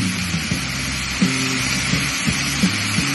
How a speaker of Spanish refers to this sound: Y ahora viene el arroz que habíamos hablado, el arroz carnaroli. Recuerden que por cada porción de arroz son tres de agua. Entonces vamos a echar el arroz.